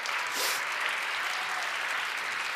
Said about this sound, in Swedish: Ge en applåd till alla över 30.